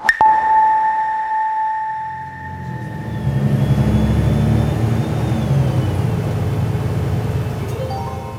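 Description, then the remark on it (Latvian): Inside a city bus in central Riga, Latvia: a sharp click and steady tonal hums, then a low engine rumble builds and drones steadily as the bus pulls away and rides toward one of the city's residential districts, with no voices. “Rīgas centrā iekāpju autobusā, lai dotos uz vienu no galvaspilsētas mikrorajoniem.”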